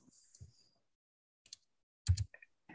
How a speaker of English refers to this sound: You're clicking pretty hard, man. I know I am.